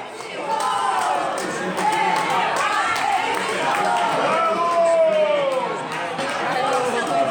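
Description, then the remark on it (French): A crowd of Atlético Mineiro football supporters in Belo Horizonte, Brazil, chants "Eu acredito" together, many voices in loud, sustained melodic unison, filling the whole stretch with a dense, steady roar of singing. “on entend quelques supporters reprendre ce chant”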